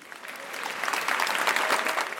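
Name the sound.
applause sound effect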